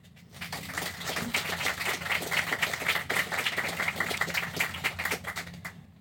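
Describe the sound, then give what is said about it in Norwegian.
An audience breaks into applause to welcome three young guests at a discussion about the future in northern Norway, a dense wash of many hands clapping that swells quickly, holds steady at moderate loudness for several seconds, then fades out. “En applaus til dem.”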